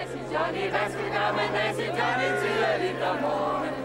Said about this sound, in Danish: Her er det fredag aftens demonstration, indkaldt af Greves borgmester.